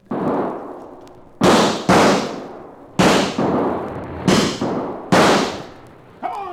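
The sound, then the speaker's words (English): A series of loud gunshots fired to run coyotes off, about eight sharp cracks at irregular intervals, some in quick pairs, each followed by a lingering rumbling decay. No one speaks. “Too late, that is, to stop the fire, but not too late to run those coyotes out of there with lead.”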